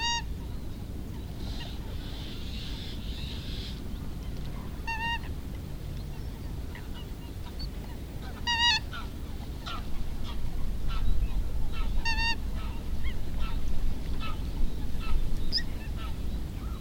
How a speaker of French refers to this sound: C'est un peu le réveil des oiseaux, on est au début du printemps encore, mais euh, pour certains, le printemps est déjà bien entamé puisque la, nidification pour les grands échassiers a, déjà commencé.